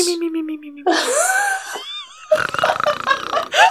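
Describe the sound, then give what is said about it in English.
A person imitates the snoring of a character named Isolde with their voice, a rough mix of throaty groans, a whistly breath in the middle and a raspy, sputtering snort to finish, with no other talking. “Have we established whether or not Isolde snores?”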